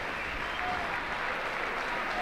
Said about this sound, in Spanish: pero la, la respuesta de la afición de la Real es extraordinaria, está ahora mismo con esa ovación cerrada para los jugadores de la Real que se están despidiendo de, sus seguidores.